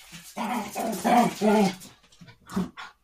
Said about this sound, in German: Nee, ich habe hier zwei Hunde, die haben sich im Moment am, am Kappeln. Ah, geht, geht und spielen raus.